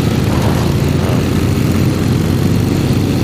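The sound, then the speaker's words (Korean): A voice imitates many motorcycles gathered in city traffic, as in downtown Vietnam, a dense, continuous engine drone with buzzing overlapping revs, steady and fairly loud throughout with no talking. “그 다음에 이제 오토바이가 여러 대 모여있는 거. 예, 뭐, 뭐, 예를 들면 베트남의 여기 시내라고 생각해 한번 들어보세요.”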